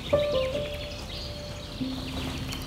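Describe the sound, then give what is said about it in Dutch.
Faint birdsong, a few soft chirps and sustained whistled notes over low background hiss, with no one speaking. “Dan horen mensen toch ook nog vogels?”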